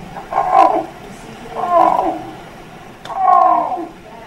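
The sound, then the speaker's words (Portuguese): Alfonso, a three-legged male Iberian lynx in a captive breeding programme, gives its mating call to a female before mating: three drawn-out, loud, mid-pitched yowling calls, each about a second long, separated by short pauses, with no talking. “É assim que o macho chama a fêmea antes do acasalamento, numa corte ruidosa com direito a algumas cabeçadas.”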